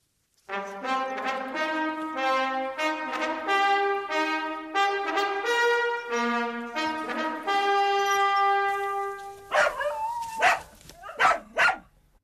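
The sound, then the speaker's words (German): A tune of sustained, harmonic notes, played as a candidate for a new horn melody, plays for several seconds, then stops, followed by a handful of sharp, loud dog barks in quick, irregular bursts near the end. “Und die Melodie, zu der von euch am lautesten gebellt wird, die wird zu meiner neuen Hupe.”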